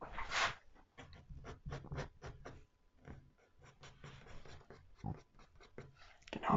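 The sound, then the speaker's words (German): A metal file scrapes along the first edge of a ski in a steady series of short, rasping strokes, fairly loud, with one longer gritty stroke at the start and no talking. “So, das war jetzt die ja. Kante 1. So, wir drehen den ganzen Ski einmal.”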